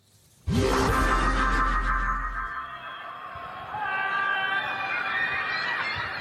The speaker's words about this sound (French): Des cris de rage et de désespoir. La frustration de ses habitants enfermés chez eux, confinés depuis la fin du mois de mars.